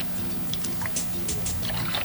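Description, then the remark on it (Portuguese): Water pours with a soft, continuous trickling splash over a steady low hum, fairly quiet, with no talking. “Tá vendo, água, Desculpa.”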